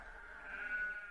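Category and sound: animal, sheep bleating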